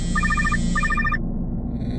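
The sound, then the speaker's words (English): A phone rings with two quick bursts of warbling electronic trills, clear over a low background hum, then falls silent. “I'm about to go and clean up the kitchen, but my phone rings.”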